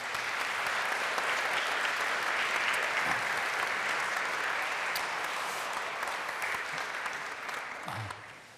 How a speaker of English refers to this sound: And let, let's give them also a round of applause.